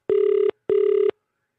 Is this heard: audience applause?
no